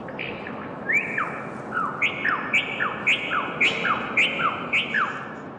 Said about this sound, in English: Bird songs. They're delicate, melodic, maybe even a bit haunting. Above you, 120 bird cages hang suspended over the narrow alley silhouetted against the sky and swaying gently in the breeze.